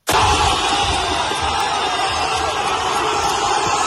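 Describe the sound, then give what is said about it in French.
Thousands of football supporters gathered in a fan zone in Buenos Aires roar in a sustained, loud wall of cheering that starts abruptly and holds steady, many voices blending into a continuous rumble of excitement, after someone shouts that a goal was scored and the crowd believes Boca has opened the score. “Alors qu'en Cano marque, quelqu'un au loin crie but et la foule croit l'ouverture du score pour Boca.”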